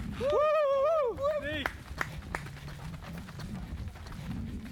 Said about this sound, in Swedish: Det är bara några meter kvar och nu, vi är just nu fyra stycken springer. Snart kommer vi möta upp resten av lagkamraterna och ta oss i mål.